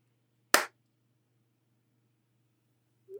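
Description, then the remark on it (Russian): A single sharp, loud hand clap made for audio sync, followed by near silence over a low steady hum, with a brief faint sound at the very end. “Ну все, заткнитесь, я сейчас хлопать буду.”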